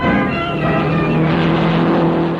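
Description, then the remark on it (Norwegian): A dense, loud roar of several Formula 1 race cars revving together at the start line of a race in Britain, a steady buzzing drone with layered high-pitched whines that hold throughout, with no voices. “Startskuddet går, og med det er Formel 1 født.”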